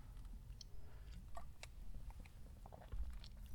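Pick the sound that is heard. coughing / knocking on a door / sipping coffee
sipping coffee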